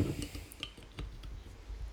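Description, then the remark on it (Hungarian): Someone opens a beer: a few quiet clicks and a short squishy crack, followed by faint rustling handling noises. No one speaks. “Igen, engedelmeddel hagyományokhoz méltóan egy podcast sört megkezdek.”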